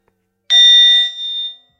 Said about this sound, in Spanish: Espera, lo, lo siento, yo tengo tengo en mi teléfono, tengo en mi teléfono una campana que suena al azar para que yo me ponga a meditar. Entonces suena ese, ese, esa... twin Y yo tengo que recordar que estoy vivo y estoy aquí y ahora.